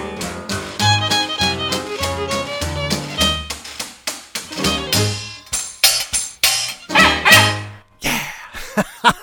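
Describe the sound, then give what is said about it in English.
A flurry of sixteen chickens clucking and squawking in quick, uneven bursts, loud, with a tambourine and sharp crackling rattles mixed in and no one talking. “the funniest sight I ever seen. Sixteen chickens and a tambourine.”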